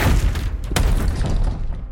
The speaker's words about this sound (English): Right then, the door to the basement stairs broke at the lock and slammed against concrete wall.